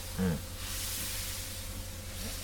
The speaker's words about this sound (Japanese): はい、列車がそろそろ動き出すといった感じですね。蒸気機関がうなりを上げですね、汽笛が聞こえてきます。